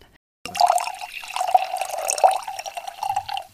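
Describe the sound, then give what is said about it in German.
Cold rosé wine pours steadily into a glass in South Tyrol, a bright gurgling trickle with a rising pitch as the glass fills, lasting about three seconds after a brief silence, with no talking. “Ja, und weil der Genuss bei keiner eingeschenkt Episode fehlen darf, ähm, schenke ich mir jetzt auch heute ein schönes Glas kalter Rasee ein.”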